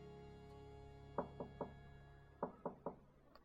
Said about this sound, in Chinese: 又是谁来敲门？哒哒哒，哒哒哒，啊，我相信，一定是小黑兔子来光临。